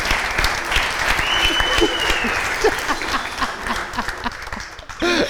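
A crowd applauds steadily, dense clapping filling the whole stretch with a few whistles and cheers mixed in, staying loud before tapering slightly near the end.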